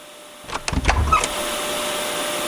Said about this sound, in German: da lässt der Bengel einfach seine PS3 an. Da wundert mich die Stromrechnung ja überhaupt nicht mehr.